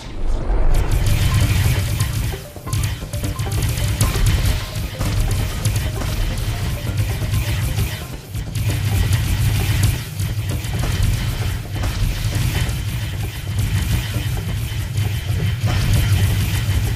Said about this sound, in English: And the new iPhone stereo widening makes things sound really immersive. Just listen to this epic boss battle.